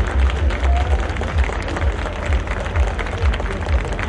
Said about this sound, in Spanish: Hacemos de nueva cuenta la participación de la banda de guerra de la Secretaría de Seguridad Pública de la Ciudad de México esta mañana para quienes también pedimos un fuerte aplauso que se escuche.